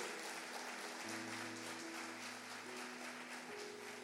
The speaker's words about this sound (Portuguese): Aplauda mais uma vez em nome de Jesus. Mais forte, gente.